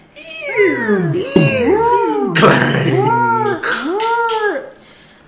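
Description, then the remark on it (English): A loud, wheezing, groaning time machine landing effect, its tone rising and falling in repeated cycles with a brief grinding burst midway before it settles and stabilizes. “Sound of the TARDIS landing and stabilizing.”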